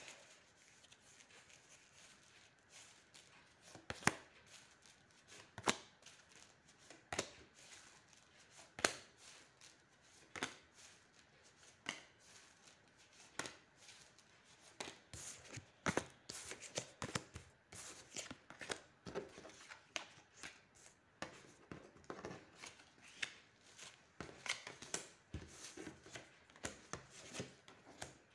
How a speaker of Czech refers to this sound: A já už si dívám na vaše fotky, míchám u toho karty a podíváme se teda spolu, co nám Tarot řekne o tomto partnerském vztahu.